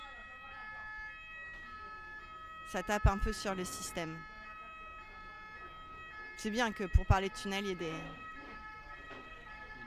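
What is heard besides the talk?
ambulance siren passing outside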